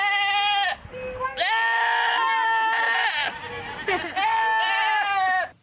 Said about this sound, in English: Maybe this is what I put in at the start of the show. Screaming goats. Oh, I love them.